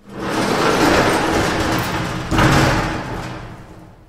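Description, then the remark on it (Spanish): A metal door rumbles and scrapes for a few seconds, then shuts with a heavy, resonant thud partway through before the noise fades out. Loud, no voices. “Volvemos a estar tan convulsionados como la puerta de metal.”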